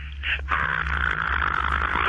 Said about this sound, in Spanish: Yo pensé que se estaba ahogando.